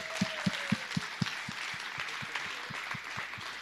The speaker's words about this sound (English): can we just clap for these guys? This is great.